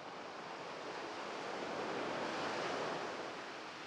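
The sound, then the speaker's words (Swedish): A steady, heavy roar of ocean waves several meters high on the Baltic Sea, heard aboard a ship, fills the whole stretch, loud, swelling slightly toward the end, with no voices or other sounds. “Utanför är vågorna flera meter höga”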